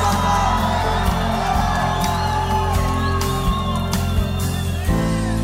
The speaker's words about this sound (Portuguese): Eu sinto o cheiro da unção de Deus tomando esse lugar. Você que acredita nisso, dá um bom grito de adoração e júbilo no povo